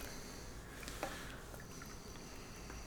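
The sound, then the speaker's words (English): 100% orange strawberry banana juice being poured into a cocktail shaker to mix with vodka, a soft, steady splashing stream heard for a few seconds, with no one talking. “I'm going to pour that into my mixer.”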